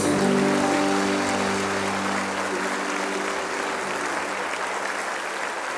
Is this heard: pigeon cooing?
no